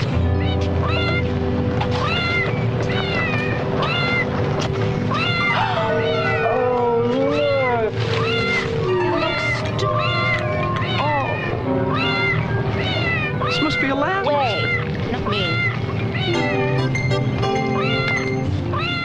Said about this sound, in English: Here's a, a little montage that Averill made of some of the cat meowing, just to get a sense, and you'll hear some of the music, and you'll go all over the place. You guys hear that?